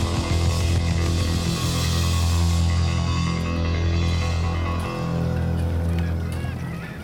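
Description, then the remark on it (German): A loud, dense chorus of gulls crying and squawking over one another without pause, with a low rumble of wind beneath, at a fjord with snow on the surrounding hills and a biting wind blowing. “Zu hören ist einzig das Geschrei der Möwen.”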